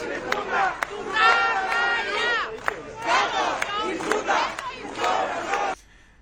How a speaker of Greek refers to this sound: Βρισκόμαστε στο Δήμο Κορδελιό Ευόσμου. Έχουμε μαζευτεί πάρα πολλοί κόσμος. Η αιτία είναι ότι μας κλείσανε λόγω και καλά κορονοϊού.